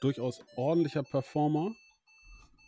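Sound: telephone ringing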